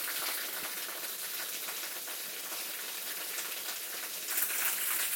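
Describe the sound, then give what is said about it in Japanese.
A waterfall at Otaki Fudoson pours in a steady, unbroken rush of hissing white noise, bright and even throughout, swelling slightly toward the end. No voices are heard. “めっちゃ滝やめっちゃ滝や”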